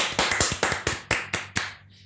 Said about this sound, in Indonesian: Wih, tepuk tangan